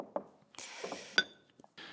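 Beer is poured into a new glass with a bright, fizzy hiss, punctuated by a few sharp glassy clinks, one ringing briefly; fairly quiet, with no talking.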